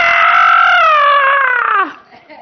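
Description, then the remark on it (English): A voice imitates the frightened scream of a five-year-old boy riding a bike downhill without using the brakes: one loud, sustained wail lasting nearly two seconds, its pitch sagging slightly before it breaks off abruptly into quiet. “And then we heard a scream that didn't sound like a scream of glee.”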